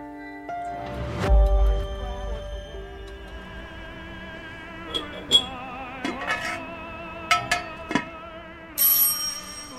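A doorbell, rung by the postman, rings with sustained, chiming tones, followed by a series of sharp metallic dings at irregular intervals. It is clear, with no voices.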